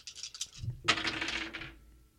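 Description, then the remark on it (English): Dice rattle briefly in a cup with a few quick clicks, then spill out in a bright burst of clattering that tumbles and fades over about a second, fairly loud with no talking; the dice are shaken and rolled to pick money line betting tips. “So without further ado, rake 'em and shake 'em a tip number one. The money line dice have selected.”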